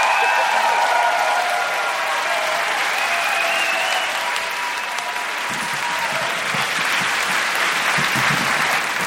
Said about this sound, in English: Kristine Levine and Caitlin Doughty, give them a round of applause.